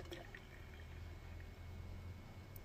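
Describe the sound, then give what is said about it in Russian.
A steady stream of freshly brewed tea pours into a mug, a continuous, fairly quiet liquid trickle with no talking, lasting the whole moment. “пока я наливаю чай”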